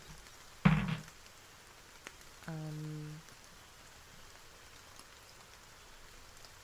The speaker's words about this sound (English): It's it's it's been raining now for about a few minutes.